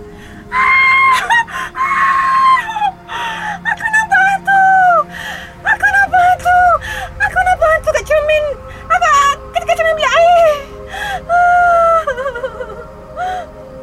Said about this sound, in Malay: … menjerit seperti mahu menangis.